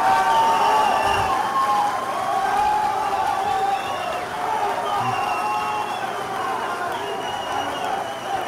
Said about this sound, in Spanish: Vale, los aplausos, los víctores.